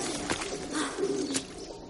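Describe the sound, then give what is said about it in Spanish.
Several pigeons perched on a courtyard wall coo in a soft, low, warbling murmur that rises and falls steadily, broken by a couple of brief sharp taps, with no one speaking. “Varias palomas la observan posadas sobre el muro del patio.”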